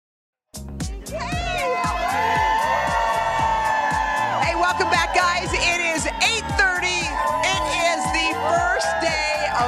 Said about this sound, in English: So happy to see this cheerful Monday crowd. I mean, you know what? It feels a little chilly, but our, our crew's out here.